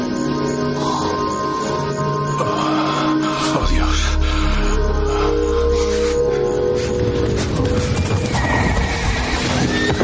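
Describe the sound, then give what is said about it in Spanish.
Horses whinny and neigh amid a steady clatter of hooves, with a low rumble swelling partway through and a dense, busy mix of sound throughout, loud, in a dream of horses, soldiers and a farm in flames. “Vuelve a soñar con los caballos, los soldados y la granja en llamas.”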